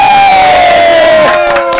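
A loud crowd roars with cheers and applause for the whole moment, a long, steady high-pitched shout or whistle sliding slightly downward above the din, with sharper clapping toward the end.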